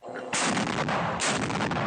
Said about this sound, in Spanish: Los enfrentamientos y explosiones continúan durante la guerra entre Hamas y las fuerzas israelíes en Gaza.